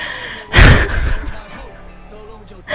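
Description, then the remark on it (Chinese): A person deliberately demonstrates a heavy, gasping breath, a big breath drawn using the lower ribs: one loud, rough inhalation that trails off into a softer breathy exhale, followed by a brief second breath at the very end. “我跟你说，我现在大喘气儿已经需要用到我下面的肋骨。”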